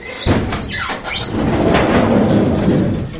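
A transport van's sliding door is rolled open by a staff nurse: a scraping start, a brief rising squeak, then a long heavy rumble as it slides along its track, with no voices.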